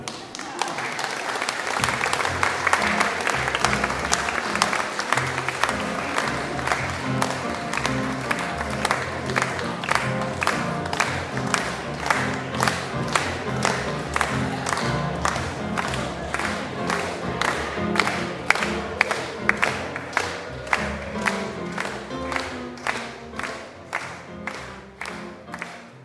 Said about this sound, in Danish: Tusind tak. Lad os klappe dem ud.